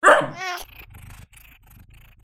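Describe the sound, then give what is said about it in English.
A male cat that was taught to bark lets out a single loud bark-like yowl that sounds much like a small dog, cutting off abruptly and followed by faint low rumbling and quiet background noise. “That's my cat, Newton. And yes, I did teach him to bark”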